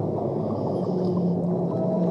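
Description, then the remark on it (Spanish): Dolphin vocalizations drift through a dense, murky underwater wash, with faint tonal calls and moans held steadily throughout the short stretch, no voices present. “Seguimos disfrutando y avanzando, acompañados y guiados por esos delfines”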